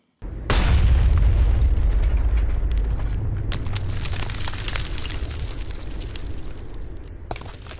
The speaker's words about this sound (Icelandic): 22. júli 1946 sprengtu Irgun Vígasamdugin uppluga sprengju í kjallara fínasta hótelsins í Jérusalem þar sem dansin hafi dunað skömmu áður og jáframt hýsti þá breska ráðamenn í borginni, 91 fórst og um 50 slösuðust.